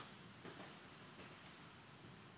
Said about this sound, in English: Okay. sounds like hail, doesn't it? That's good. That's good. That's what I like to hear on this building.